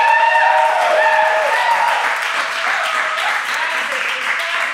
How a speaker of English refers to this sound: Just kidding. There's not that many people here. Sounds like a lot because when they clap, it echoes. So it's just an illusion.